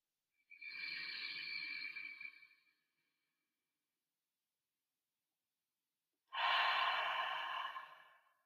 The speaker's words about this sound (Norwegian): og så roer vi oss helt ned, og så tar vi et dypt pust sammen.